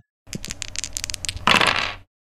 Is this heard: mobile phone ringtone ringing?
no